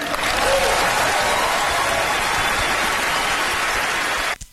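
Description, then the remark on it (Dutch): A large audience claps for Mexican actor Gael Garcia Bernal after his speech against any wall separating people, in a dense, sustained wash of applause that stays loud and even for several seconds before cutting off abruptly. “Allemaal klappen.”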